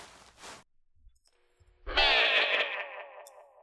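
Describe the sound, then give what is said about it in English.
A single loud, wavering goat bleat with a heavy echo effect, its pitch sliding downward as the reverberation trails off, after a brief burst of noise and near silence. “That's a goat.”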